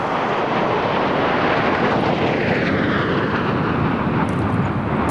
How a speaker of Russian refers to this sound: Следом а, четверка фронтовых бомбардировщиков Су-24М.